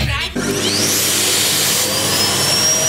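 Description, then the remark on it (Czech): A vacuum cleaner switches on after a brief pause and roars loudly, its high-pitched motor whine climbing as it spins up and then holding steady, as part of a Bikers Rádio Doupě jingle. “Vysavač Bikers Rádia Doupě. S našimi hosty do poslední kapky. Vysavač.”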